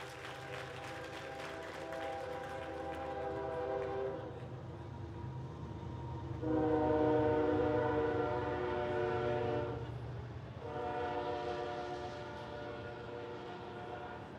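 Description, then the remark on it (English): A train rumbles steadily while its horn sounds in three long, loud blasts, each holding a rich chord before fading back into the low rolling noise of the passing cars. “I know you all think that's the train.”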